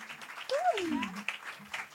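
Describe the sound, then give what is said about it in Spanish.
Applause from a crowd, a steady wash of many hands clapping at moderate volume, with a single voice letting out a brief falling whoop partway through. “Un aplauso para un aplauso, Muchas gracias.”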